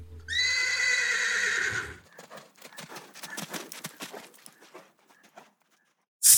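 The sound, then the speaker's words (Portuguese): A horse named Silver lets out a loud whinny lasting about two seconds, followed by a quick run of hooves clopping rhythmically on a hard surface before fading out. “É lógico que o meu cavalo se chama Silver.”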